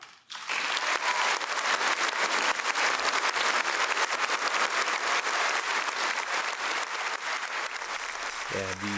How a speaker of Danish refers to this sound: Øh, forlader klapsalverne her efter to og et halvt minut.